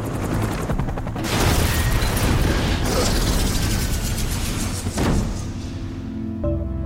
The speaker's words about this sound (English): It was a really romantic movie, Die Hard. McClane's car smashes through a toll booth, launching into the air straight at the chopper.